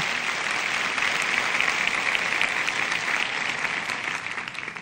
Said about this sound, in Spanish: gloria a Dios, aplausos para Dios.